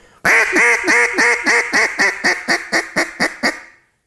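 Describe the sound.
A duck call, just reassembled with its reed flicked back into place, is blown, sounding a rapid string of about a dozen raspy quacks in a steady rhythm that gradually taper off in loudness. No one talks.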